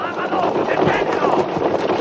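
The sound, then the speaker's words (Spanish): A four-horse chariot heading into a sharp curve and leaving the marked track thunders past with rapid, galloping hoofbeats and a constant rolling rumble, loud, under a dense, noisy wash of sound. “La cuadriga enfila hacia una pronunciada curva.”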